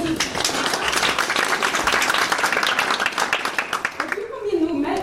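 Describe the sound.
A crowd in Tromsø claps steadily in a dense, continuous wash of applause for about four seconds, then it fades out as a voice begins speaking.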